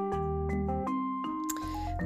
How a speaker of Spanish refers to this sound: De pronto, la campana sonó. Era el campanero. Al llegar la hora, había tirado de la cuerda. Ding, don, ding, dan.